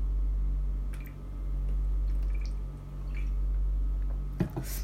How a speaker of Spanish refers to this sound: pausa para tomar agua.